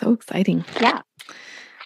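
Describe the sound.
A short exchange of voices, then a soft, steady rustle of a deck of tarot cards being shuffled close by for under a second, a dry papery riffle on its own.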